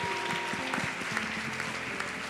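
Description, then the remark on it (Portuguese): An audience applauds steadily throughout, a dense, continuous wash of clapping at an even level, with a faint sustained musical tone running underneath. “Um salve de palmas, gente!”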